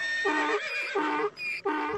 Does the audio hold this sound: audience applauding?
no